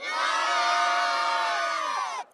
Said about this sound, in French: La foule a répondu présente pour apercevoir le pape, et notamment ses plus grands admirateurs, euphoriques.